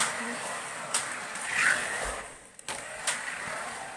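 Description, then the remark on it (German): Small electric motors of Carera Go toy slot cars whir and buzz continuously as they race around a track, with brief clicks and swells in pitch, and faint voices in the background. “Carera go rennen”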